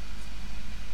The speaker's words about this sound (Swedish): Eh, och min, om ni hör det här surret i bakgrunden så är det min dator som... jag vet inte riktigt vad som hände. Den vill lyfta.